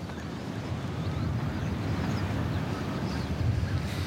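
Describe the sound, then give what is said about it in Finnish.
Steady wind blows across the microphone outdoors at a birdwatching observation point, a constant low rumbling buffet with no pauses, loud throughout, swelling slightly toward the end. “tämä tuuli ohjailee näitä lintuja ihan meidän päälle, niin niitä on hauska katella ja tunnistaa.”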